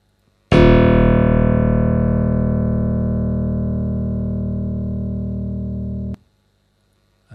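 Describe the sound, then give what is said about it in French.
A single low simulated piano note strikes sharply, rich and buzzy with overtones, then rings steadily while slowly fading for about five seconds before cutting off abruptly. No one speaks. “Donc ça ici, c'est d'abord le son simulé dans le grave.”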